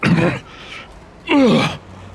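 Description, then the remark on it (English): A woman gags and coughs in two harsh bursts separated by a short pause after mistakenly putting a zucchini dipped in manure into her mouth; the second is a strained, throaty retch that slides downward in pitch. “Realizing her mistake, she makes a horrified face gags, coughs,”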